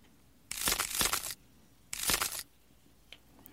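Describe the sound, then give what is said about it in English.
Two loud bursts of dry, crunching cracks coming from deep within the prince's body, the first longer and grainier, the second shorter, separated by a brief pause, with a small click afterward; no voices. “And a cracking sound came from deep within his body.”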